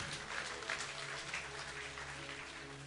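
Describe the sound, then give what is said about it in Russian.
A crowd applauds for the Lord in a dense, steady burst of clapping that holds at an even level for about three seconds, with a low electrical hum underneath and no voices. “Дай Господу огромные аплодисменты.”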